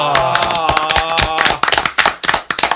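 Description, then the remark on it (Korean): Applause welcoming a guest scholar onto a Korean broadcast show: a burst of brisk, irregular hand claps from a few people, with some voices and laughter mixed in at the start before the claps finish on their own. “아, 저희가 아 박수로 초대 손님을 맞은 건 처음입니다.”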